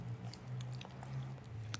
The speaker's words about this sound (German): Hört ihr es schmatzen?